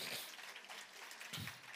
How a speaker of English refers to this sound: I'm actually down 70 pounds. You can clap for that. I'll, I'll take it.